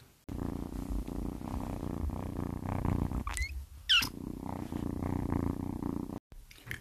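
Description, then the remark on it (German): A cat purrs steadily, with the rumble pausing midway for a couple of short, high meows before the purring resumes. “Schlussendlich muss ich jetzt einmal ganz kurz dazu sagen, ich habe dieses Miauen nach der Folge ähm, aufgenommen.”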